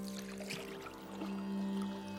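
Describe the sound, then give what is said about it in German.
Quiet splashing and trickling water from an oar dipping into the Ganges River as two fishermen row a boat and haul in a net, with one clearer stroke early on and a low steady hum underneath; no one speaks. “Auf dem Rückweg holt sein Kollege pro Ruderzug eine Armlänge Netz ein.”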